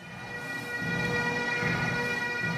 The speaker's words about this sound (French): Au son des cornemuses et des tambours, le cercueil de la reine est emmené vers l'abbaye de Westminster. La famille royale suit, plusieurs régiments encadrent le cortège.